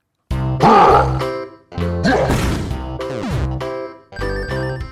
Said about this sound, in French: il faut définitivement qu'on baisse le son de ce jingle FAQ Sunday